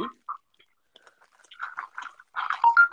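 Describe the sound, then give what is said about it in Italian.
Someone chewing food: soft, wet mouth clicks and smacking noises come in irregular bursts, sparse at first, then growing denser and louder toward the end. “stai mangiando? C'hai la bocca bottiglina,”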